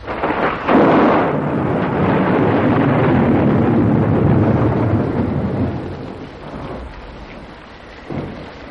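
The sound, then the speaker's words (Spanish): Heavy storm rain and wind lash steadily against the glass panes of a workshop window at night, with roaring wind and low thunderous rumbles surging throughout, loud, easing slightly near the end before a brief renewed gust. “Los vientos y la lluvia golpean en los cristales de la ventana, pero también penetran por un tragaluz por el que gruesos cables que se agitan como tentáculos de un pulpo gigantesco se pierden en la negrura de un cielo amenazador.”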